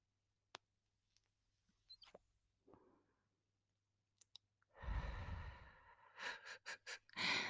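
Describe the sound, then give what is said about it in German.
A few faint, sparse crackles from a burning joint that has burned down quite short, then a long inhale as it is drawn on, followed by several short breathy puffs. No talking. “Ja, der ist jetzt schon ziemlich, ziemlich kurz. Deswegen knistert das nicht mehr so laut.”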